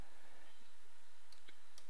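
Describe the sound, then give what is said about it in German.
A few faint, sharp right-clicks from a computer mouse, spaced apart against a quiet background hiss, with no one speaking, used to turn a drawn path into a selection in image-editing software. “Mit einem Rechtsklick”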